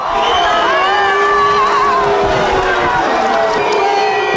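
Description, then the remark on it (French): A loud, dense crowd of opponents boos and jeers at Nicolas Sarkozy during his 2012 campaign visit to Bayonne, France, many voices shouting and insulting over one another with rising and falling yells, a sustained hostile din throughout. “Vous entendez des opposants le huer, l'insulter, Nicolas Sarkozy, qui quelques minutes plus tard va réagir.”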